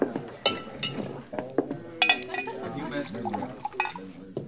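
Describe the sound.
Sharp glass clinks ring out, followed by a glass of rye whiskey being poured, with indistinct voices murmuring underneath.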